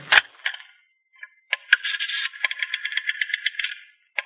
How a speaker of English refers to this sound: Well, go right ahead, Governor. Just pick up this phone here and give the operator your number.